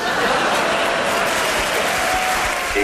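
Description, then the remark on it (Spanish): An audience applauds a gentleman steadily, a dense patter of many hands clapping at a constant loud level for a few seconds, with faint murmurs mixed into the crowd noise. “Un aplauso para el caballero.”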